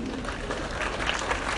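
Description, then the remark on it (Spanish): An audience claps steadily, a dense, even patter of many hands sustained at a moderate level throughout, with no voice rising above it. “Y el que no aplaude es porque no, no tiene conciencia.”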